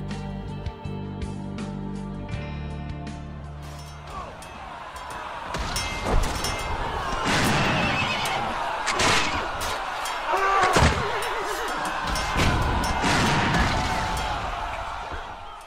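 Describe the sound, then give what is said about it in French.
Battle sound effects: after a few seconds of sustained tones, loud booming explosions and bursts of gunfire crash in, repeating irregularly over a dense, rumbling din. “Retirons dès à présent les bruits d'un conflit armé.”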